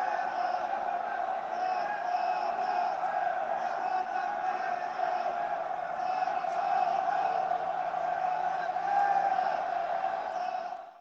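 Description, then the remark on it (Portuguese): The voices of many prisoners shout and cry out for help together, a continuous muffled din heard from outside a penitentiary in Uberlândia, steady and unbroken throughout with no clear individual words. “É, as meninas gravam os vídeos do lado de fora da penitenciária e a gente escuta esses gritos de socorro, é, enfim, em várias unidades a gente consegue ver esses gritos saindo dentro”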